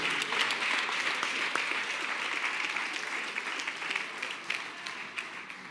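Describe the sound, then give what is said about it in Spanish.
An audience applauds a man for reconsidering, steadily for several seconds, a dense wash of many hands clapping at a fairly even level, with a few sharper individual claps standing out as it begins to thin near the end. “Denle un aplauso porque él, recapacitó.”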